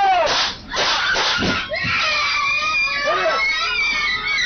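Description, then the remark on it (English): Twenty-one children screaming at once on a school bus, a dense chaotic chorus of high-pitched shrieks and cries filling the space continuously, loud, with a few sharp thuds or knocks mixed in. “Those were the screams of 21 children on that bus and we heard what was the fatal shooting of their brave driver”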